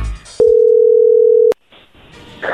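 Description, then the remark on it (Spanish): A steady, loud telephone tone hums continuously for about a second as a call is being dialed, starting and stopping abruptly with clicks, followed by faint line noise and rustling. “A ver, ahí se está marcando”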